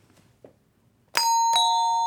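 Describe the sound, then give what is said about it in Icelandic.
A quiz team's buzzer bell, for the team Pjakkarnir, named after their dog Pjakkur, gives a two-note ding-dong chime that rings out clearly, bright sustained tones struck twice in quick succession and left ringing, after a few faint background rustles. “Hvernig hljóma pjakka bjallan?”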